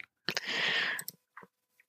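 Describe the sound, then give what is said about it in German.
A computer gives off a short run of clicking noises: a dense, rattling burst under a second long, then a couple of softer, brief clicks afterward, moderately loud. “Sorry, ich, mein Computer hat gerade ganz viele Geräusche.”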